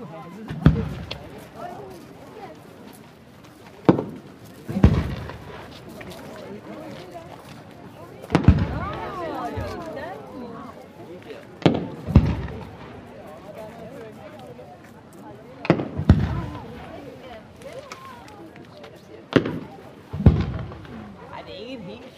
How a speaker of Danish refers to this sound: Efter det danske løsen var der fyrværkeri i anledning af det nu er 10 år siden man startede denne tradition med havnens dag.